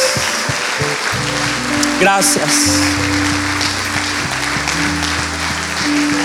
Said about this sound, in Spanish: con un fuerte aplauso. Y con su voz y sus palabras, mientras aplaude, díganle Señor, gracias.